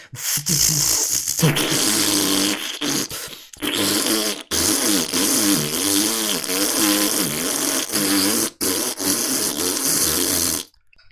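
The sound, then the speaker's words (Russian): A voice imitates a turbocharged car's exhaust with loud, sputtering, raspy blats and wobbling growls, broken into several bursts over about eleven seconds. “И человек на своем турбированном дристалище, у которого звук”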